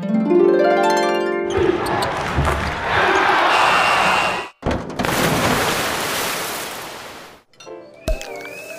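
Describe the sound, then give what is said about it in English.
A sound effects machine plays a loud, rapid string of assorted novelty sound effects: a rising whistly tone, then noisy whooshes, croak-like blurts and thuds, each cutting abruptly into the next, with no talking. “Yep, I bought a sound effects machine.”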